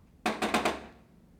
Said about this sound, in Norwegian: Nå er det jeg som banker, altså.